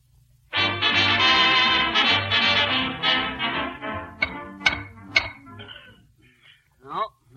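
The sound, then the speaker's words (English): Three or four sharp, hollow knocks on a wall, spaced about half a second apart, as someone taps the walls searching for secret panels, coming after a loud, dense stretch of sustained sound. “Besides, I'm tapping these walls for secret panels.”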